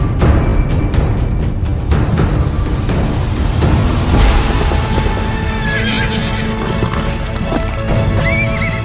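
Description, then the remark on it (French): Horses neigh and whinny while hooves clip-clop steadily, a loud, busy scene with several horses moving and calling over about nine seconds, no voices present. “ce qui m'a toujours fasciné, c'est pour ça que le spectacle s'appelait Fascination toute ma vie, euh, tout le long de ma vie, je dirais, c'est cet animal absolument exceptionnel, fantastique, extraordinaire, qui est le cheval.”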